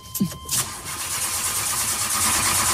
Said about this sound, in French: Je suis devant la fusée qui va décoller. Vous entendez les moteurs derrière moi.